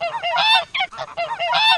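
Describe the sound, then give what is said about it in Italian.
Hens squawk loudly, a rapid run of harsh, nasal calls in several bursts over about two seconds, with no voices. “si sono offese pure le galline.”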